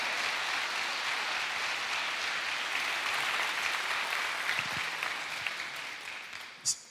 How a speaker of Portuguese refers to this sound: Pode aplaudir mais forte, irmão.